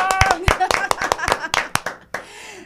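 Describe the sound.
Audience applause bursts out in loud, rapid irregular claps, with voices calling out over it, then fades into a softer, steady patter of clapping at the end.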